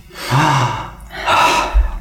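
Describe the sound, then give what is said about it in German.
A deep, audible breath drawn in, a brief pause, then a long breathy exhale, with no speech. “Wir atmen kurz durch”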